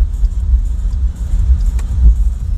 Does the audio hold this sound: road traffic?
yes